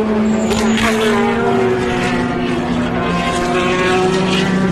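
Race car engines at the 2014 Le Mans 24-hour endurance race, just after nine at night and six hours in, heard from the S's, drone loudly and steadily for the whole stretch, their high whining tones bending slightly in pitch as the cars pass. No one speaks.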